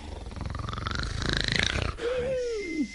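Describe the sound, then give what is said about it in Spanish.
A voice imitates the loud snoring of a man sleeping on a cot: a long, harsh, rattling snore lasting about two seconds, then a thin whistling exhale that slides up and back down. “como ronca el joyío”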